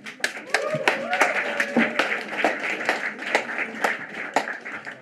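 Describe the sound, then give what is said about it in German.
A small audience applauds with scattered, fairly loud claps in an uneven rhythm for about five seconds, with a voice briefly heard talking beneath the clapping near the start. “Applaus!”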